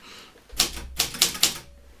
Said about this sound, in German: So klingt meine alte Schreibmaschine. Und da habe ich schon meine ersten Bücher geschrieben.